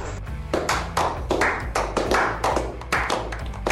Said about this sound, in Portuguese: Então, quero agradecer a edição. Palmas, por favor.